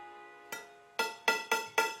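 A glass is tapped five times to call for an announcement, one soft tap and then four sharper, quickening clinks, each leaving a brief ringing tone, with no voices over it.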